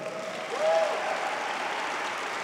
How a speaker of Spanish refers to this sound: Dale un fuerte aplauso al Señor.